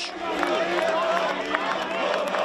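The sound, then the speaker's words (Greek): Beekeepers at Syntagma in Athens applaud and chant slogans as students pass by, a dense crowd roaring continuously, with overlapping raised voices chanting and scattered clapping mixed into a steady, loud wash of noise. “Μελισσοκόμοι χειροκροτούν και φωνάζουν συνθήματα την ώρα που περνούν οι φοιτητέ από μπροστά του.”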